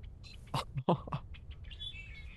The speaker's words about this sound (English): Oh yeah, the blackbird. Oh, there's just a piece of this where it really goes.